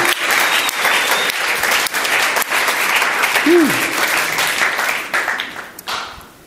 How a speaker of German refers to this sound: Hallo, lass uns wirklich Jesus einfach einen mega Applaus geben für das Kreuz. Halleluja.